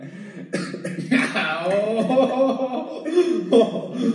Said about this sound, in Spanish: Esa tos no tiene nada que ver con haberse fumado un churro. no, se me fue la saliva.